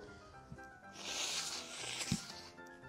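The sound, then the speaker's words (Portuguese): A single long, airy nose sniffle from someone with a bad cold, a drawn-in hiss lasting over a second, fairly quiet, with a couple of soft low thumps and no talking. “Fungada é, boa, hein? É, só o nariz, né?”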